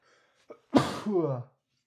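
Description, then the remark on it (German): A person voices a baby dragon's sneeze: a quick sharp inhale, then one loud, forceful sneeze burst that trails off into a growly, voiced tail, heard alone. “Da hört man ihn niesen, den Babydrachen, aber nicht sonderlich zaghaft.”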